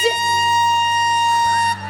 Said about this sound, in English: Okay, they're gonna have five minutes on the clock, and as soon as that five minutes starts, that's their chance to begin speaking. As soon as that timer is finished, there is gonna be a horn.